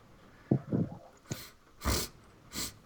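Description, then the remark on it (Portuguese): Several short, breathy sniffles right up against the microphone, coming in quick irregular bursts with a few soft low thumps before them, and no one talking. “você tá fungando no microfone.”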